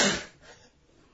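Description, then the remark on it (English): A single sharp sneeze, a loud breathy burst at the very start that quickly trails off into quiet, with no talking around it. “bless you.”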